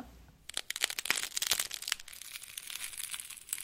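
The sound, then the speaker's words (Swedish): Crunching of crisp food being chewed, a dense run of sharp, irregular crackles starting after a brief pause and continuing steadily at a moderate level, with no voices. “När man tuggar på något som är krispigt.”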